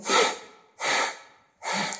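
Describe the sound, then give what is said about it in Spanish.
Three forceful, heavy breaths in quick succession, each a harsh rushing burst of air, demonstrating the breathing of anger in a breathing exercise, with no talking. “Si la respiración de la ira es...”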